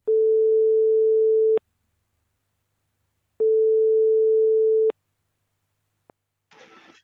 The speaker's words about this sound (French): elle ne sait pas encore qu'on va l'appeler, mais on va donc tout de suite composer son numéro en direct donc euh, dans ce podcast pour lui annoncer la bonne nouvelle.